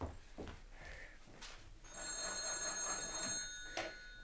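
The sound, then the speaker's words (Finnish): An old-fashioned telephone bell rings steadily as a phone call is being made, its bright metallic trill starting about halfway through after some quiet shuffling and clicks. “Saanko soittaa?”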